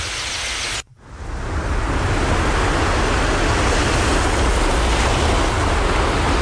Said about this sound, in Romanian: Asta e în Turcia, pe țărmul mării, la Akçakese. Akçakese. Dă tu ceva exotic. Se aud valurile.